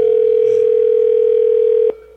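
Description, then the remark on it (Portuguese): A steady, continuous telephone dial tone as someone calls again after dialing a wrong number, holding at one pitch for almost two seconds, then cutting off with a brief click, leaving a faint hum. “Vou ligar de novo aqui, eu liguei errado, ó, macho.”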